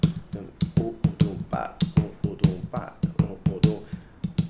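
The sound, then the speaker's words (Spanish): The cinquillo rhythm, a syncopated rhythm with roots in North African Arab and southern Spanish culture, is tapped out by hand: sharp, fairly loud taps repeating in a steady patterned cycle, with a voice vocalizing syllables along with the beats. “del, norte de África, que es todo lo que es la cultura, principalmente la cultura árabe, y del sur de España, que es un ritmo que le llaman los músicos los cinquillos, que hay que hacer...”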